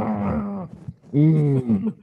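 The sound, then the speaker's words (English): A person vocally imitates an animal's roar with two drawn-out, wavering growls, separated by a short pause, fairly loud. “I mean, they can roar, but it's not as common as they make believe in the movies.”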